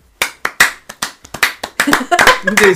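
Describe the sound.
A few people clap in sharp, uneven bursts that grow quicker and denser, with voices and laughter joining in toward the end.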